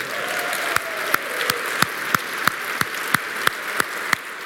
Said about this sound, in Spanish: Entonces vamos a hacer una cosa, les voy a pedir que se pongan de pie y vamos a darle un aplauso de agradecimiento a Dios.